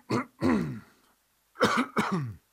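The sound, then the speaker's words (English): A person clears their throat before speaking on the radio, with two pairs of short, gruff coughs, a brief silent pause separating the pairs, with no talking. “You feel like a criminal if you cough.”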